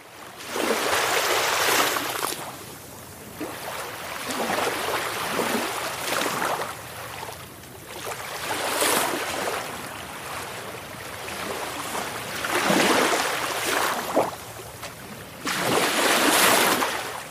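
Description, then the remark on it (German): Steady roar of North Sea surf with waves washing in one after another, broad hissing swells rising and falling every few seconds, fairly loud, no voices. “Hier kommen 20 Sekunden Meeresrauschen von der Nordsee.”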